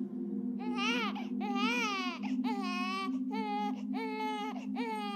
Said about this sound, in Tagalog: Alas 12 ng hating gabi po nang maalimpungatan ako sa iyak ng sanggol, Miss Anne.